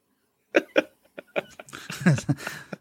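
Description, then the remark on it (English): A voice imitates sucking in air before going underwater: several sharp, quick gasping inhales in a row, then a longer strained, voiced gasp, fairly loud. “oh, you're trying to, to you're trying to go underwater”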